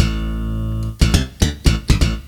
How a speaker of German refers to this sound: Und wie geil ist das? Ja, also dass ich, dass ich zwei Bässe übereinander legen kann.